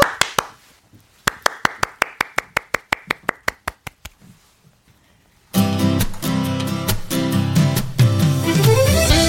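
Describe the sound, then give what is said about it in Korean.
A few hands clap in a steady, even rhythm for several seconds, the crisp claps gradually fading, before loud band music of a live song performance abruptly starts. “박수 네. 보내드릴게요.”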